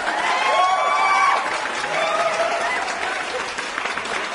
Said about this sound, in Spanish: La neta, muchachos, nunca lo imaginé, nunca lo esperé de ustedes. Pero aplausos, maldita sea.